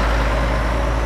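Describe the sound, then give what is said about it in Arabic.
A truck engine rumbles steadily and loudly, a constant deep drone with a broad hiss of noise on top and no distinct pauses or voices, as trucks carry packed sacks to a factory. “ثم حشرونا أخيرا في أكياس ونقلونا في شاحنات إلى المصنع”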